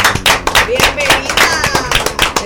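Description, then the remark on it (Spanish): Audience applause on the show Al Mediodía con Mariotti y compañía, introducing a guest for the segment Siete preguntas y un chin: a steady dense patter of many hands clapping at a loud, even level for the whole stretch, with a few faint voices and cheers mixed in. “Un aplauso”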